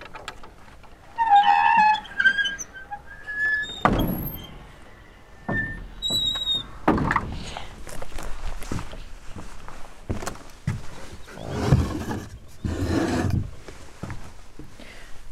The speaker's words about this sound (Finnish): Avataan ikkunaluukut vielä.